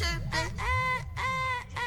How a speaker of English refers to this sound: Good morning to you. The birds are chirping.